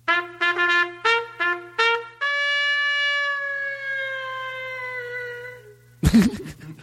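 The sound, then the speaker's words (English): A solo trumpet played into a microphone with a lot of reverb plays a short ditty, five quick detached notes, then one long held tone that slowly fades into a roomy reverb tail, ending with a brief loud rustling burst. “but you pick up that trumpet, and it's like put a little, put a lot of reverb in that mic. Play a little ditty that you're comfortable playing.”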